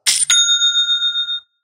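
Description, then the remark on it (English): A cash register rings up a sale: a quick mechanical clatter, then a bright bell chime that rings out clearly and fades over about a second, with no one speaking. “And it's the sound of another sale on Shopify,”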